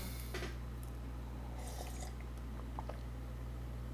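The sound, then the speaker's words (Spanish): A person takes a sip of water: soft slurps and swallows with a faint clink of glass, quiet against a steady low background hum, and no talking. “Em, voy a tomar un poco de agua.”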